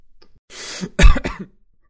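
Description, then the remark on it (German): A breathy exhale leads into two quick, forceful coughs, fairly loud, with no talking around them. “Äh, husten, husten.”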